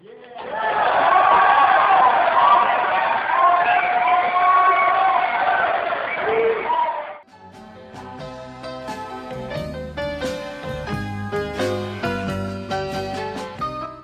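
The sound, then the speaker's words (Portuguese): A loud crowd cheers and shouts in a dense, steady roar for about seven seconds, then cuts abruptly to upbeat music with a steady beat. “Palmas palmas por essa obra.”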